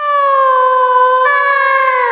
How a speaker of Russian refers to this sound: Этот звук идет из дуба Из лаборатории, я так думаю Дядюшка Филин так не умеет Ну да, он ухает а это кто-то или что-то воет.